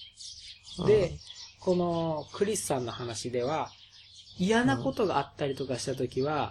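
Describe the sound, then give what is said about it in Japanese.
Birds chirp and tweet steadily outside a window in the background, faint and high-pitched, while a man talks continuously over them in the foreground. “すごい鳥が鳴いてる。”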